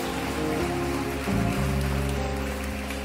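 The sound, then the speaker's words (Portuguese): An audience applauding to glorify the name of Jesus, a dense, steady wash of many hands clapping that holds at an even, loud level throughout, with sustained low musical tones running underneath. “Aplaude e glorifique o nome de Jesus.”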